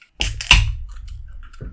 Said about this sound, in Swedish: Jag ska hälla upp min eh, öl här.